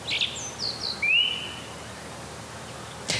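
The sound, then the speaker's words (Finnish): A song thrush sings a few short, clear whistled phrases in spring against quiet outdoor background hiss, the notes fairly faint, with a brief sharp sound at the very end. “Ja mun mielestä jotenkin erityisesti tänä keväänä niin laulurastas on selvästi hallinnut äänimaisemaa.”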